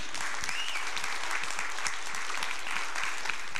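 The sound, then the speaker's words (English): A church audience applauds steadily, a dense wash of many hands clapping at once that holds at an even level for the whole few seconds, with no one talking over it. “I think we have one of the best worship teams in the country, don't you? Let me hear your hands.”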